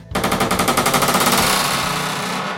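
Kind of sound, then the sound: household object, heavy door opening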